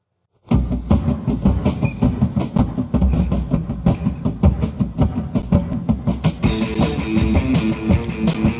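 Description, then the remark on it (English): A loud, abrasive noise rock song kicks in after a moment of silence, with dense distorted guitars and pounding rhythmic drums, turning even harsher with a bright wash of noise near the end. “I like this song a lot.”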